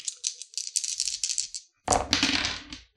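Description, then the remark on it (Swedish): Dice rattle in quick, clicking bursts as they are shaken, then a short pause before a louder clatter as they tumble and settle. No one speaks. “Vad dåligt jag slår idag då.”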